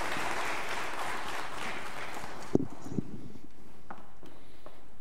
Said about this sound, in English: Would you give them another round of applause as they go back to their seats?